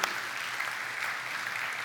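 Steady applause from a crowd, a dense wash of many hands clapping at an even level for the whole stretch, with no voices standing out.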